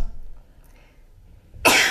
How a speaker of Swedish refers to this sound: Det lät nog mer som en hostning.